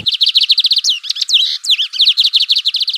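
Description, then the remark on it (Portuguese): A Lined Seedeater sings a bright, rapid song: fast runs of high, repeated chirping notes broken by a burst of twisting whistles, loud, with no voices. “E hoje o personagem é o Bigodinho.”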